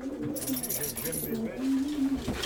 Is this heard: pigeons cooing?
yes